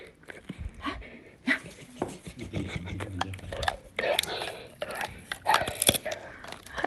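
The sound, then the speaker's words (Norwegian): A dog named Anton chews a hard chew bone as his dessert after dinner, with irregular crunching and gnawing clicks and bursts of panting breath, while a voice speaks quietly now and then. “Ja, det er, han eh, holder på med noe sånn tyggebein her som eh, knaser litt.”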